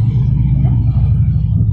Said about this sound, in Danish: Så har vi lige en motorcykel, der kommer kørende.